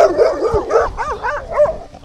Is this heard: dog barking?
yes